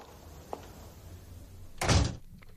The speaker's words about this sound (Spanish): Bueno, portazo y se, terminó.